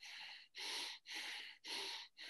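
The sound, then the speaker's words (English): Heavy, forceful breathing through the nose, loud, demonstrating nasal breathing while exercising hard, with about five rapid hissing inhales and exhales in a steady rhythm and only brief pauses between them. No one speaks. “So when you're um, out there, you know, breathing hard, you might be,”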